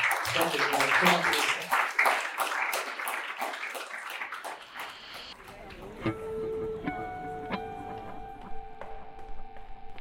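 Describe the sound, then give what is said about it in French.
An audience applauds the participants at the end of an evening discussion with dense, steady clapping for about five seconds, then the clapping fades into a quieter passage of sustained tones punctuated by sharp ticking clicks. “Je pense qu'on peut vous applaudir.”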